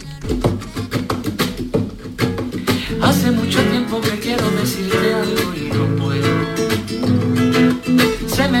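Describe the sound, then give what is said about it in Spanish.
A cover version of a pop song by a 16-year-old from Huelva, Spain, performed with singing over full band accompaniment, with punchy rhythmic beats at the start and a sustained sung melody carrying through at a steady, loud level. “hizo una versión de esta canción, una versión que suena así, mira.”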